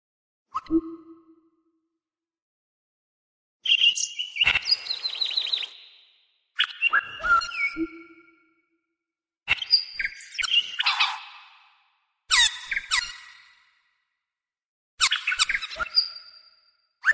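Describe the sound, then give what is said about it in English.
A computer-generated collage of assorted bird calls and chirps, from a composition of 1,543 sounds made by 55 bird species native to Thailand, arranged in separate bursts with silent gaps, mixing whistles, trills and sharp clicks, clear with no voices. “is the translation of speeches and poems by Thai activists into a computer generated composition comprised of 1,543 different sounds made by 55 species of birds native to Thailand.”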